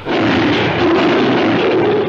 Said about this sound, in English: Uh, King Kong, when it was not a human voice being slowed down, it was also a lion's roar and a tiger's roar that was run backwards and slowed down.